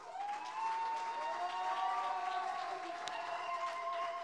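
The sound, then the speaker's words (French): Sustained audience applause for the participants, a dense wash of many hands clapping at steady loudness for several seconds, with faint crowd murmur and a few voices rising within it. “Très très rapidement, je voudrais juste euh, en profiter pour remercier bien sûr tous les participants qu'on peut applaudir à nouveau.”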